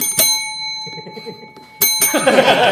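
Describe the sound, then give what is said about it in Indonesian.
A bell rings with a bright, sustained metallic tone that lingers throughout, punctuated by a few sharp strikes, while muffled voices and clatter rise beneath it toward the end. “silakan lewat ngasih bel salah ya”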